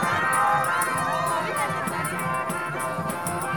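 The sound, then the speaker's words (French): A dense carnival crowd celebrating the arrival of spring roars with overlapping shouts and cheers, a steady loud wash of voices with sharp bursts and whistle-like peaks cutting through throughout. “J'aime le carnaval pour ce qu'il est, une explosion désordonnée d'énergie toute neuve.”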